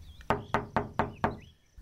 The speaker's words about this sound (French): on toque à la porte.